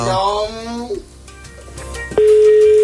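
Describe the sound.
A voice speaks briefly, then after a short lull a loud, steady telephone ringing tone sounds on the call, holding one constant mid pitch until the end.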